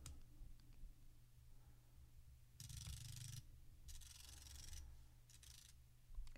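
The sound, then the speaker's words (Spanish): Braille display pins refreshing left to right as the unit is switched on, in three quick bursts of dense, rapid mechanical clicking with a raspy texture, fairly loud over a low steady hum, with no one speaking. “Y ahí de inmediato refrescó de izquierda a derecha, pudieron escucharlo”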